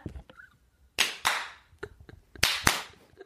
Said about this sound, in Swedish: Alltså, han klappar och går samtidigt för att jag ska höra. Men ibland blir det också fel, du blir ju rädd av det.